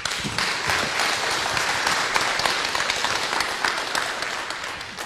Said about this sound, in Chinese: 掌声有请。